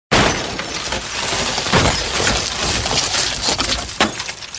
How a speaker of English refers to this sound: Toto, afraid of the lion, jumps up and hits a big screen. It falls over.